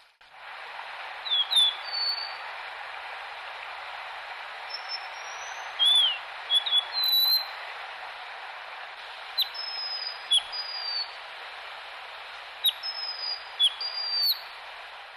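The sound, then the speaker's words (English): A mountain wagtail gives sharp, high chirps in scattered bursts, some doubled, over a steady rushing background hiss, like running water. “The bird for today is a mountain wagtail.”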